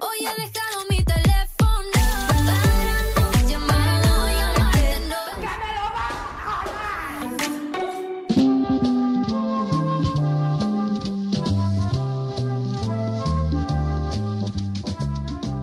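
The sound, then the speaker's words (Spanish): A radio section intro jingle: loud, upbeat music opening with punchy percussive hits, shifting midway into a bright, bouncy melody over a steady bassline, played alone with no voices. “bueno, vamos a poner la cabecera para que la escuches y sepas un poquito de qué va el rollo.”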